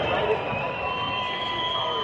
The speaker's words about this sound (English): They're booing a player. I can't tell you who.